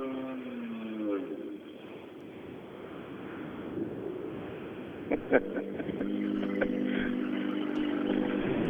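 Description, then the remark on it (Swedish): A loud, rasping engine of Saarinen's rally car roars and revs, its exhaust system leaking, the note rising and falling with sharp pops and a rough, blatty edge, wind buffeting the microphone throughout. “Och den lät väldigt mycket. Det är ju en avgassystem som läcker någonstans så det får de väl fixa nu.”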